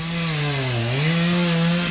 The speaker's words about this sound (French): je crois qu'on entend euh, un bruit de tronçonneuse pas loin.